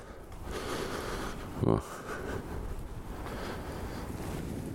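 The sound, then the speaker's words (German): Steady outdoor wind from the northeast at 18 to 30 km/h, with light snowfall, rumbles and buffets against a microphone for the whole stretch, with a brief louder gust-like thump partway through and a muffled voice faintly underneath. “Wind aus NO mit 18 bis 30 und leichter Schneefall.”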